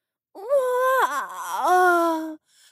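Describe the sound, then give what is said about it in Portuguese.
A voice imitates a cow yawning as it leaves the cowshed: one long, drawn-out moaning tone lasting about two seconds, dipping in pitch midway and rising again before stopping abruptly. “A vaca mimosa saiu da cocheira bocejando.”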